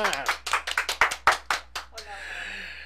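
Brisk, rhythmic applause welcoming a guest's arrival on a show after a news break, about a dozen sharp claps over two seconds, fairly loud, then giving way to a low murmur of background noise.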